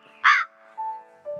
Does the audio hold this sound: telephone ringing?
no